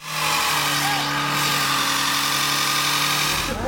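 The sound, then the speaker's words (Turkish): Several car engines drone and rev together in a steady, loud roar in a convoy of mostly maskless young people at a military send-off celebration, burning their cars' tires, with a broad hiss of tires or crowd noise layered over the sustained engine hum. “Asker uğurlaması yaptılar, polis yaptıkları eğlenceyi bastı ama uslanmadılar konvoy yapıp ortalığı birbirine katan çoğu maskesiz genç arabaların lastiğini yakarak ilginç bir eğlence sergiledi.”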